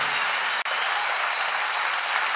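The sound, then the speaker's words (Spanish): A crowd breaks into sustained applause, a dense, steady wash of clapping hands that stays loud throughout with only a brief dip near the start, during a church sermon. “Dale el aplauso.”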